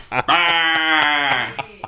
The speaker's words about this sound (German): sie blökt gerade von hinten, weil äh, sie hier quasi mit im Raum sitzt. Ähm, sie blökt.